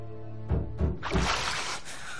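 A hand swishes through water with a few soft, low sloshes, followed by a brief splashy wash as it lifts out, fairly quiet, with no voices.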